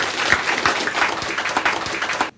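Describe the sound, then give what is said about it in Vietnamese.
An audience breaks into steady applause for a motivational speaker, many hands clapping in a dense, continuous patter at fairly strong volume for about two seconds before it cuts off abruptly. “Vậy khi tôi nói thì các anh chị phải hay thì các anh chị phải cho chàng vỗ tay thì tôi máu lên tôi nói cho nó hay đúng không?”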